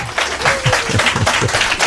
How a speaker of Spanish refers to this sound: Hace buenísimo, están todos los puestos de libros al aire libre, muchísima eh, gente, tenemos muchos espectadores, mucha gente espectadores, Como demuestra esta ovación espontánea que el público nos está dedicando